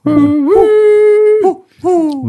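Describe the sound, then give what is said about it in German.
An owl whistle hoots three times, loud and hollow, with a short call, a long drawn-out one and a final hoot after a brief pause. “Die Eulenpfeife.”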